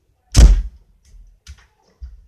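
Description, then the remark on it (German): A door is shut with one heavy thud, followed by a few faint knocks and rattles as it settles. No voices are heard. “Ich mach muss, muss Tür zu machen.”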